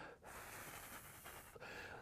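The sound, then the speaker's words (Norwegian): A person demonstrates pursed-lip breathing: long, airy, hissing breaths pushed through half-closed lips, fairly soft, with two brief pauses between breaths and no talking. “For å utsette dette lufttrykksfallet vil man gjerne se at de puster mot halvveis lukkede lepper, sånn som dette.”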